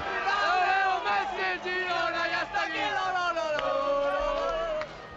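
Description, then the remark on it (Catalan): A crowd of football fans sings a loud, sustained chant in unison, many voices holding melodic, rising and falling lines with steady rhythmic pulses throughout. It is the chant from the Girona town hall balcony, sung when Girona was promoted to the first division, sung to Messi as he leaves the FC Barcelona team bus. “I li fan el càntic, eh, del balcó de, de, de l'Ajuntament del Girona quan el Girona va, va pujar a primera divisió.”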